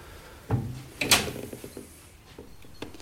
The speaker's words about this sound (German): Na, jetzt kann man wenigstens mal die Tür aufmachen.